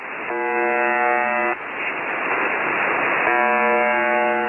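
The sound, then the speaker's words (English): A harsh, steady electronic buzz with rich harmonics drones over radio static, briefly giving way to a hiss of noise in the middle before the buzzing resumes, loud and continuous. “This is a recording of a shortwave radio station that's commonly known as the buzzer.”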